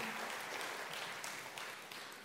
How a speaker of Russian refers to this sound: Дайте им аплодисменты, дайте им аплодисменты.